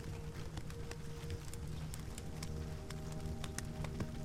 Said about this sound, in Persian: صدای دلنشین آتش و صدای ملایم بارون که به شیشه پنجره برخورد میکنن و میشنوید